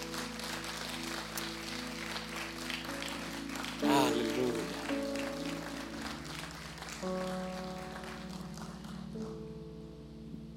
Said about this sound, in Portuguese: Você pode aplaudir o Senhor Jesus Cristo?